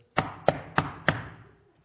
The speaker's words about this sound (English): And it's midnight, and, and all of a sudden there's a knock on the door. Now, listen.